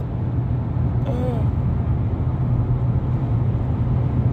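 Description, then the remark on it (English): A car's engine drones steadily with low road rumble, heard from inside the cabin while driving. The noise stays constant, and a brief faint chirp rises near the start. “Maybe I'll get back on here as soon as I park when I don't have to talk over the car”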